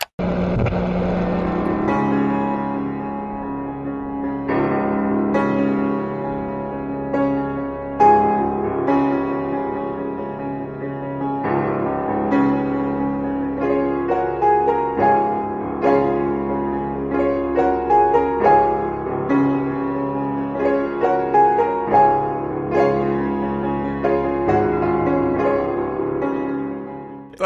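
An instrumental film theme, music associated with the Olympics, plays steadily with no voices, layered sustained tones shifting between chords in a regular rhythm at a consistently full, loud level throughout.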